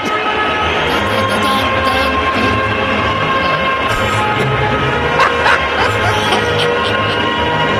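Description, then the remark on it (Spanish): A big crowd at Borussia's stadium sings Ode to Joy together as the team comes out, a loud, steady wall of voices holding the slow melody, with a few sharper shouts cutting through near the end. “Aunque a mí lo que más me impresionó es cuando de repente empiezan a cantar el himno de la alegría.”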